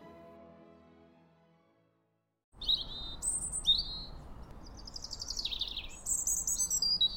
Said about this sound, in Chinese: 你觉得刚刚这是什么声音呀？它是鸟叫的声音，It's the sound of a bird，是不是很好听呢？